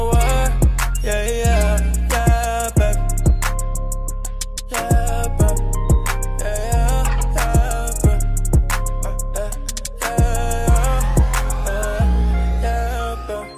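A brand-new hip-hop track plays on Move radio, loud and steady, with deep booming bass, sharp rhythmic hits and a repeating melodic loop, with no vocals in this stretch.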